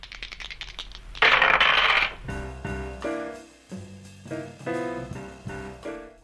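Dice rattle and clatter sharply across a hard table surface, with a dense burst of rolling clicks, then a bright musical tune begins and carries on.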